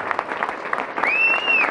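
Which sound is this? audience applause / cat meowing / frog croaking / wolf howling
audience applause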